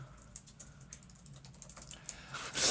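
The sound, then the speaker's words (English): Rapid, irregular clicking of keys on a computer keyboard, a steady run of quick taps, fairly quiet, ending in a brief burst of louder rustling noise. “Sorry, I was trying to type this so quickly.”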